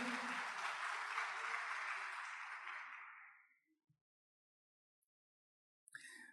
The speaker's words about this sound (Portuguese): Vamos ficar em pé, vamos dar um forte aplauso ao nome do Senhor Jesus. Pode dar glória a Deus, exaltar o nome do Senhor.